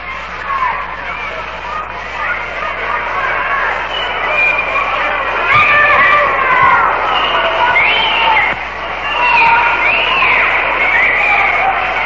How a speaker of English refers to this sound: Whistle down there from Luke Appling, coaching at first base for the Orioles.